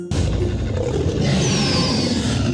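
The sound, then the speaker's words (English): A loud, deep stegosaurus roar rumbles continuously for about two and a half seconds, forceful with a rough, growling texture and no voices alongside it. “In fact, he could roar even louder than a Tyrannosaurus rex.”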